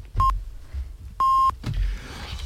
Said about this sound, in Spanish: Acaban de dar las señales de las siete y media de la mañana. Lo digo por si se les eh, paró el despertador.